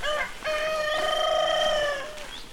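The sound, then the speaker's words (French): A rooster crows once, loudly: a short opening note, then a long sustained harmonic call that rises slightly and trails off at the end. No one speaks. “son cheval, son poney, ses coqs, ses chiens.”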